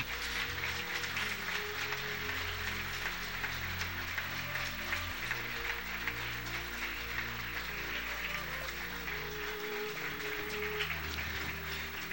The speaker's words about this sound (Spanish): Demos un aplauso al Rey. Aleluya.